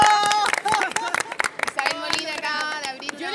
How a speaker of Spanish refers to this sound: llegó y se cree la muerte porque logró abrir la botella de vino, así que igual un aplauso